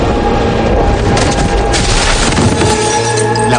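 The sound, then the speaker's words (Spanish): A glass door smashes as a man is hurled against it by a violent gust of wind: a loud, dense burst of crashing and shattering with heavy booming underneath, sustained for several seconds with no voices. “Gabriel, de un fuerte soplido, provoca un vendaval que lanza Constantin al pabellón contigo, estampándolo contra una puerta de cristales que se hace pues, por el impacto.”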